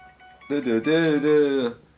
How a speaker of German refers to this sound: Übrigens der gruseligste, der übrigens allergruseligste Klingelton, den man noch haben kann. Ich würde ja. sterben, wenn ich den hätte.